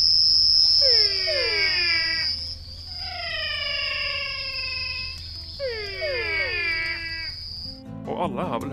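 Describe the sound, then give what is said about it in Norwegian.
Crickets chirp in a steady, high-pitched trill that runs almost the whole way, under three bursts of louder, sweeping animal wails. A voice starts speaking right at the end. “den diskré, fine bakgrunnslyden av sirisser.”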